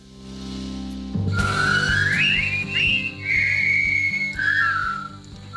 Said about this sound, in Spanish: yo creo que es el silbido más, más, famoso